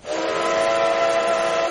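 A steam train whistle blows one sustained, loud, steady blast with breathy hiss as the train arrives at Pujamunt de Dalt in the morning, lasting nearly two seconds before cutting off. No voices.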